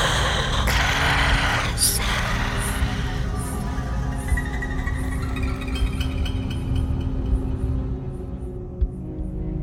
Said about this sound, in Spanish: Sara se levantó de un grito, jadeante y sudorosa, pero sola en su cama